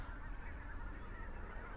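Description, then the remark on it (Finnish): A mixed flock of geese, including tundra bean geese and barnacle geese, honks continuously overhead in flight, many overlapping calls forming a dense, steady chorus with no pauses, outdoors in morning sunshine, without any talking. “Siellä tulee haneet. Oho, ja nyt ne tulee takaisinpäin.”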